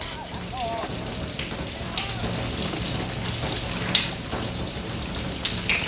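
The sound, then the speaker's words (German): Heavy rain pours down steadily and keeps getting heavier, a dense hiss with scattered louder splashes of drops, and a faint murmur of voices near the start. “Es regnet immer mehr.”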